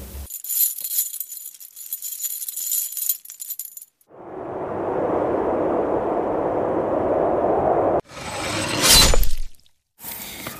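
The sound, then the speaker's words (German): Metallic chains jangle and rattle for a few seconds, then a loud, steady rush of wind blows before breaking into a couple of harsher gusty bursts at the end. No one speaks. “Auf einmal hörten sie Ketten und einen lauten Windstoß.”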